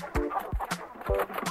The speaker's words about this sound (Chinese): 有三只母鸡，咯咯咯的吵个不停。